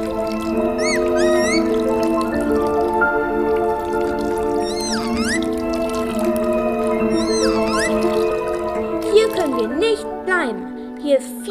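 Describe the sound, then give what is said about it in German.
An underwater sound effect: a steady humming drone with watery, gliding blips that drip in every couple of seconds, growing busier and more bubbly toward the end. “oder unter Wasser. Wir müssen unter Wasser leben und in einer Muschel wohnen.”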